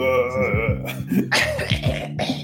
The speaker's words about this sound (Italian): Hai fatto proprio una tosse da 60 anni